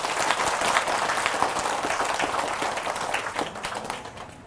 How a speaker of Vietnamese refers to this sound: nếu các bạn thấy là việc đó có thể thực hiện được đó thì hãy dâng cho một tràng vỗ tay thật lớn để cam kết